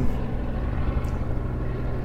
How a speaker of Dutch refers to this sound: Terwijl hier eh, rustig even een helikoptertje overvliegt.